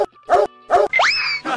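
A dog barks three times in short, loud, evenly spaced bursts, with a rising, cartoonish whistle sliding upward between the second and third barks.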